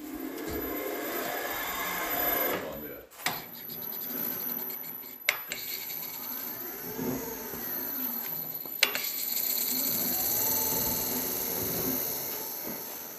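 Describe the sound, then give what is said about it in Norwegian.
A steady mechanical grinding rumble of a car spinning in a rollover simulator, turning through 90 degrees toward upside down, with a few sharp knocks and clatters as loose cans and rubber mats tumble around inside. No voices. “Da snurrer bilen her, og hun er 90 grader. Nå er hun snart helt på hodet. Og jeg ser at eh, boksene ruller rundt i bilen, så det er løse deler.”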